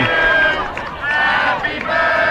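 The Coffee County crowd sings "Happy Birthday" together over their own microphone at the fields, many voices blending into a rough, raucous chorus with sustained tones that rise and dip as the melody moves.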